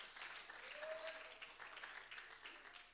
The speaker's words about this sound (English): Can we clap our hands on the Lord? Hallelujah.